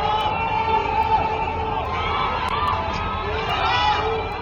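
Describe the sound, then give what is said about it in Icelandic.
A crowd of voices shouts together in a sustained, overlapping chorus, steady and fairly loud throughout, with occasional louder calls rising above the mass of chanting: residents of Wuhan, China, shouting encouragement in chorus from the windows of apartment blocks. “Á kýmverskum samfélagsmiðlum hefur verið dreift upptökum af fólki sem rópar baráttu hverjur í kór út um glugga fjölbílisúsa í Wuhan og syngur þjóðlög.”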